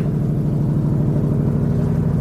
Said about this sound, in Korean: 아 뭐죠 헬기가 날아가네요